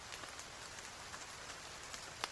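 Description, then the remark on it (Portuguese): Steady, fairly soft rain hissing across a surface, with scattered individual drops pattering through and one sharper splash near the end; no voices. “E tá chovendo.”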